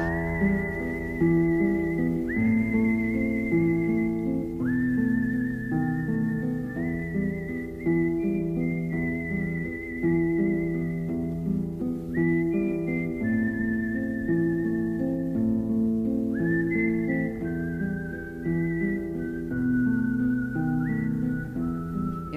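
A clear whistled melody from the soundtrack of the film O Salto glides through a slow tune in steady, held phrases, sitting on top of a full instrumental backing that plays continuously, with no voices present.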